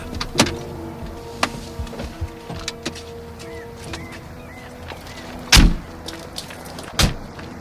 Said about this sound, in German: Deshalb parkte Bob seinen Käfer neben einem BMW Cabrio auf dem öffentlichen Parkplatz.